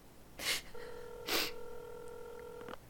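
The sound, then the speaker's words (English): A steady electronic telephone ringing tone hums on the line for about two seconds, preceded by two sharp breathy gasps. No one speaks. “It's ringing. Take it.”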